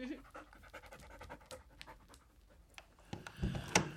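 labrador dog panting

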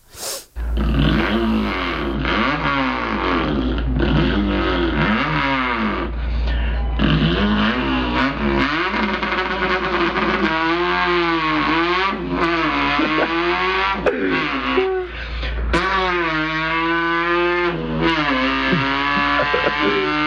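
car engine revving

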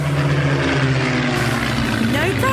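aircraft engine

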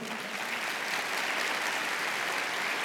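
audience applauding

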